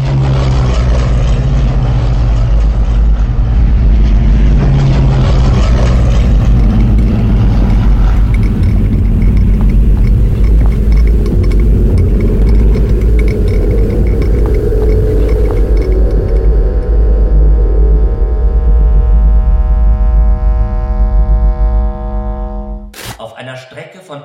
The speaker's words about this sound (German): Die Maschinen flogen jetzt über die Beobachterinnen hinweg.